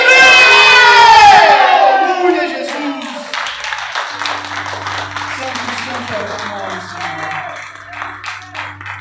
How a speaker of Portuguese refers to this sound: Vai, joga no chão, pisa em cima e grita: Eu sou livre!